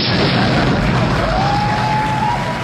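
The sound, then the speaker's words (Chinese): A loud explosion sound effect, a dense, roaring blast of noise with a deep rumble that holds steady for nearly three seconds without fading, with no voices. “愿所有善良的人都不被邪恶欺负，愿所有邪恶的人原地爆炸。”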